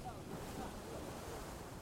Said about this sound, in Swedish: Andra oroar sig för att den hårda vinden ska göra att vågorna slår över kanten.